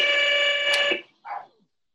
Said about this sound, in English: Okay, that was attacking. Her buzzer just attacked us, guys.